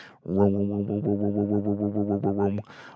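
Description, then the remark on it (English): A voice hums a sustained, droning tone for about two seconds, pulsing in a steady wobble, imitating a riser sound effect, with brief breathy noise at the start and end. “Um, so sometimes that can be like a droning sound, like.”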